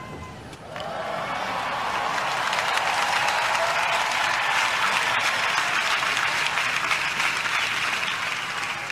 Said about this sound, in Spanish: empezando por el discurso de bienvenida del Papa Francisco, el cómo él pide esos aplausos para el Señor y para todos los que dan la acogida.